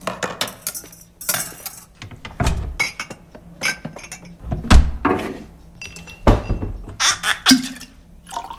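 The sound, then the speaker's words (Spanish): Glasses clink together several times in a toast, bright high chimes scattered irregularly among soft knocks and rustling, with no voices. “Chin, chin, chinchot.”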